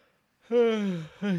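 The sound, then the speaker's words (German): A voiced yawn: one long drawn-out groan sliding downward in pitch, then a brief second vocal sigh right after it, with no other sounds around. “Ich habe, glaube ich, noch nie Ach, auf Spotify schön. gegähnt.”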